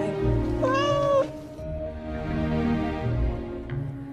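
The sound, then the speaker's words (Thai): A single drawn-out cat meow, clear, lasting about half a second, set against a steady low rumbling background that continues after the cry fades. “อยู่มาวันหนึ่งนางหนูก็ถูกแมวตัวอื่นจับไว้ได้”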